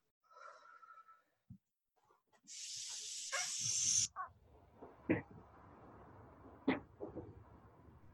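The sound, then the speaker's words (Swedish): A person blows out a long, steady, normal exhale, a breathy hiss into the microphone lasting over a second, followed by soft rustling and handling noises. “Och då andas jag ut som en, en normal eh, utandning liksom.”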